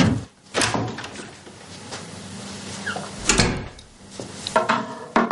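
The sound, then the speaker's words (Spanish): A doorman pushes the door of a house entrance shut at night, staying outside, with a few wooden knocks and thuds from the latch and frame, then a firm closing bump; no one speaks. “Josito espera en la calle y su novia entra mientras el portero cierra la puerta quedando fuera.”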